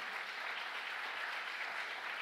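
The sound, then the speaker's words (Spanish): An audience breaks into sustained applause, a dense, steady wash of many hands clapping at constant loudness with no voices standing out. “¿Cuánto le da un aplauso fuerte a papá?”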